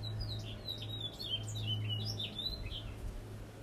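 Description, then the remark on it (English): Many small birds chirp and tweet at once in spring in a busy, overlapping, high-pitched chorus over a steady low hum of background noise. “Because I come out here and just ground myself in what these birds are saying.”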